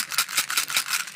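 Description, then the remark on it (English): Small hard dark chocolate pearls rattle inside a little Eiffel Tower tin marked Maxim's, shaken in a quick rhythm of about six bright bursts with no talking. “and what I order for myself is a little tiny Eiffel Tower tin full of dark chocolate pearls, they call it.”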